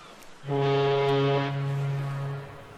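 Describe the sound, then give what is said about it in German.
A single deep, sustained foghorn blast from a huge ocean steamer with at least three or four funnels, a low droning tone with rich buzzy overtones that holds steady for about two seconds before cutting off. No one speaks. “stell dir mal so einen riesigen, fetten Ozeandampfer vor.”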